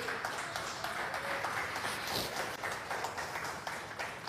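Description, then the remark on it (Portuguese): A church audience applauds Jesus together, a dense, steady wash of many hands clapping at once that fills the whole stretch with no one speaking over it. “Aplauda Jesus porque ele merece.”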